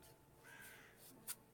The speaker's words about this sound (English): You can hear the crows overhead that Evelyn pointed out. They're still circling.